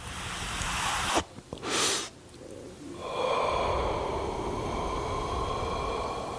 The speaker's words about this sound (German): Das war im Kino vor jedem Film zu sehen und das war sehr suggestiv. Da ging die Kamera ganz nah ran an die Glut der Zigarette und es gab einen tiefen Atemzug.